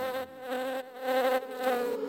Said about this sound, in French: Attention, il y a la guêpe.